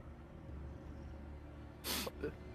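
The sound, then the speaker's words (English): A short, airy sniff breaks a low, quiet background, followed a moment later by a fainter second intake of breath through the nose. “just sniffs after saying that.”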